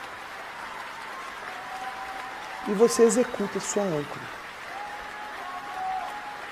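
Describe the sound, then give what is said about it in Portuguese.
Steady crowd applause fills the background throughout, a continuous wash of clapping at moderate volume, while a voice speaks briefly over it in the middle. “Sinta esses aplausos. Quanto mais você se concentra, mais eles vão aumentando”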